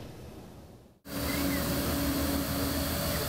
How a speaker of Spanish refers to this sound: Este objeto volador reta a la fuerza de gravedad con cuatro hélices. Se llama AR Drone. Es un vehículo no tripulado que se controla mediante un smartphone, una tableta digital o un dispositivo móvil que cuente con pantalla táctil y conectividad Wi-Fi